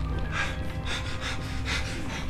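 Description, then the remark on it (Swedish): A voice imitates excited, gasping panting, a quick run of breathy bursts repeating in a steady rhythm across a couple of seconds, fairly loud with no other talk. “Hon liksom flämtar av någon form av lyckosam liksom, känsla,”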